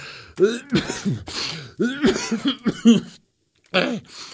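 A fairly loud fit of coughing: a run of rough, raspy coughs in quick bursts, a brief pause, then one more cough near the end.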